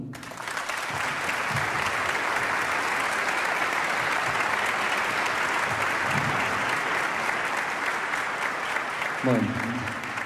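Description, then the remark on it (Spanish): Loud, sustained applause from a concert audience for a musician fills the whole stretch, a dense steady wash of clapping with a few faint voices and whistles mixed in, and a brief vocal sound near the end. “Este, bueno, nos vamos a despedir con dos obras más que famosas que están en el programa, no hace falta que las presentemos, pero les quiero pedir un, fuerte aplauso para mi gran amigo, colega y admirado”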